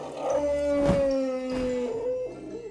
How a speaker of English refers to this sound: Mr. Elephant flap his ears, stirs up dust, and makes loud noises to scare the bees away.